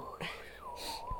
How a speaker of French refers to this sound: Le vent s'active.